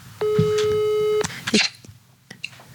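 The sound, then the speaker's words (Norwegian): A single steady telephone ringing tone lasts about a second on an outgoing call to a sister, clear and fairly loud, followed by brief clicks and faint handling noise. “Jeg skal nå bare ringe da”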